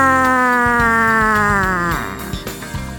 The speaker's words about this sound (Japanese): もうもうえらいことになってます何か警報が鳴ってます警報がもうもうどうしたらいいんですか